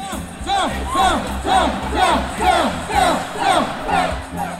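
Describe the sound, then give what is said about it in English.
A large crowd at a Groundhog Day celebration chants in a steady, rhythmic call, voices rising and falling together in repeated loud phrases, about two per second, with a dense roar of cheering underneath. “There's fireworks, there's dancing, there's chanting.”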